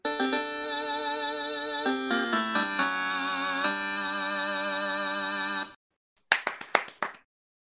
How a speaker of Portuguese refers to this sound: É. Palmas. Sabes que às vezes o barulho das ah, palmas parece outra coisa?